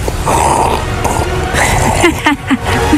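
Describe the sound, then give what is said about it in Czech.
A voice imitates slurping a cola drink, making wet, sucking, gurgling mouth noises for about three seconds, with a few short squeaky sounds near the end. “No ale věc, kterou já nesnesu jako vůbec, tak to je srkání pití.”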